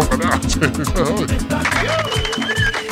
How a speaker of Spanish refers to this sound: Esos aplausos.